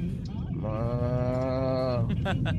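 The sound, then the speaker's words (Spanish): A man imitates a cow with one long, steady moo, a drawn-out, slightly nasal tone held for over a second, with brief breathy voice sounds before and after. “Estaban dos vacas comiendo pasto. Entonces una vaca empieza a hacer.”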